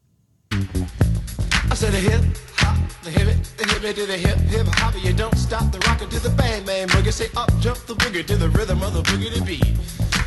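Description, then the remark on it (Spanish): An old-school hip hop track plays loud and steady, the rapped first verse riding over a thumping, bass-heavy groove that kicks in after a brief silence and runs continuously. “la primera estrofa de la canción … del trío de hip hop …”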